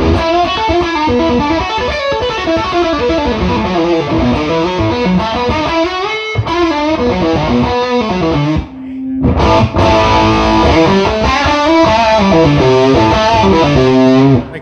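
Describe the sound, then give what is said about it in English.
Crunchy, gritty electric guitar power chords ring out loud through a Princeton Reverb tube amp with the drive off, strummed steadily with one brief pause midway before the playing resumes. No one speaks. “And that's through a Princeton reverb”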